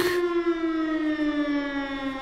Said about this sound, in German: mit Sirenen wurden die Leute nämlich gewarnt, heute drin zu bleiben, weil Orkantief Friederike so stark war, auch in vielen anderen Städten in Deutschland haben die Behörden den Leuten empfohlen, bleibt bloß drin.